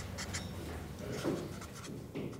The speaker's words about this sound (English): This is the sound of a half dozen adults trying to solve an existential question about the future of a company by doodling on post it notes. The idea here is to make the brainstorming and developing process as efficient as possible.